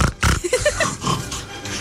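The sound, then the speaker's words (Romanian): A person imitates a pig, giving a short burst of snorting, squealing grunts with rising and falling pitch, fairly loud, with no other talk. “Deci cum este guiț uh, articulat?”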